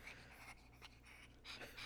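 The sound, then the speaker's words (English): A female dog named Ali pants in quick, rhythmic breaths, a steady huffing series of airy bursts with no one speaking over it. “Oh, here she is. You hear her breathing?”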